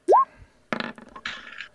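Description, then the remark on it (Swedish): A twenty-sided die (D20) is rolled for a danger-detection check: a brief hollow rising plop, then about a second of irregular, bright rattling clatter as it tumbles and settles. No one speaks. “Eh, det är samma typ av tärning hela tiden? Jajamän, en D20 så länge jag inte säger någonting annat.”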